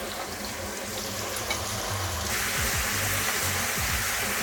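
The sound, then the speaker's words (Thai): Already-marinated lamb frying in a small pot on a stove: a steady, broad hiss of sizzling fat that grows denser and louder after a couple of seconds, with low clunks of stirring underneath. No one speaks. “ก็เรามีแกะเยอะไปนิดนึงสำหรับหม้อเพราะหม้อที่นี่เล็กมากมีหม้ออยู่ 2 ใบเล็กๆแบบนี้ไม่รู้จะใส่ได้หมดนี่ป่ะนะฮะแต่ว่าถ้าไม่หมดก็เดี๋ยวเราก็ค่อย ๆเติมเอาได้ไม่เป็นไรนะครับเราจะทอดแกะก่อนนะฮะเฮ้เรา เปิดเตากันเลย”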